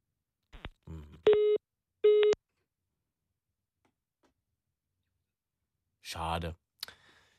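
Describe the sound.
Two short, steady telephone busy-tone beeps sound after a caller's line drops during a phone-in broadcast, bracketed by brief bits of speech before and a voice returning a few seconds later.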